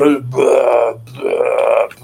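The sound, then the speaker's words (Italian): A voice imitates two loud, drawn-out burps in quick succession, each a deep, croaking belch lasting over half a second, with a brief pause between them. “Quindi facevo questi super rutti perché mamma mi ha dato il, il Valium.”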